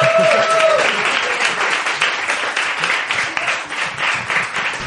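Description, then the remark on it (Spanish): A crowd applauds the winner of a contest as he is handed a bottle of wine, steadily for about five seconds, a dense, loud patter of many hands clapping at once, with a few voices mixed in near the start. “Un aplauso para el ganador.”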